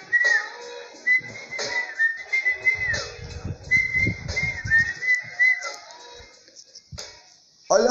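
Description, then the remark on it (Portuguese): A person whistles a chirpy, birdlike tune, repeated warbling phrases imitating a small bird, with some faint background noise and a sharp rising whistle near the end. “Outro passarinho chegou lá a assobiar.”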